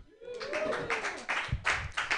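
An audience claps their hands in a steady burst of applause, the dense patter of many hands lasting a couple of seconds, with a brief whoop rising over it at the start.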